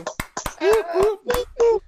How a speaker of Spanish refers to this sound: ¡Un aplauso!